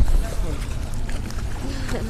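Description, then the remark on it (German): Steady low rumble of boat engines on the water with wind noise, the first fishing boats returning from sunset fishing, while indistinct voices murmur faintly in the background. “Hier kommen die ersten schon wieder zurück vom Sunset Fishing.”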